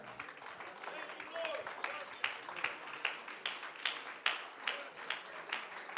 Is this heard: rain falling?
no